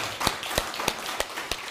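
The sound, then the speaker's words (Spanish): Applause in a slow, steady rhythm: about five sharp, crisp claps evenly spaced roughly a third of a second apart, fairly soft, with no voices over them. “Denle un fuerte abrazo, aplauso al bendito sea.”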